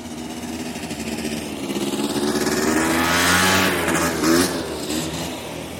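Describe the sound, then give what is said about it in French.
A scooter engine revs steadily on a very small island, its buzzing pitch climbing and swelling louder toward the middle before easing off slightly, with no voices. “On circule à scooter ou à vélo, sans casque.”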